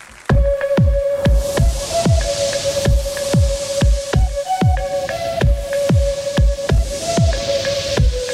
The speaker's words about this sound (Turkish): Orada bize şu fon müziği bir eşlik etsin.